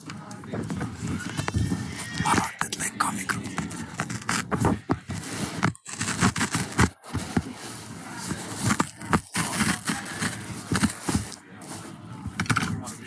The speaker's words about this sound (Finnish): Kuuntele, miten Fiskarsin sakset leikkaa ruskeita pakkausteippiä. Mä tykkään siitä, miten sä sait tota ääntä kuitenkin tähän, tähän mukaan mikrofonin lähemmäs teippiä.